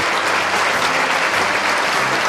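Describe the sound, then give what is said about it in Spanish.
Dense, sustained applause from a large audience at the 2012 Holy Week proclamation (pregón), growing louder as two men embrace and the man being honoured bows to the authorities. Many hands clap at once in a loud, continuous roar that stays fairly even throughout. “Y el aplauso se hace más, fuerte.”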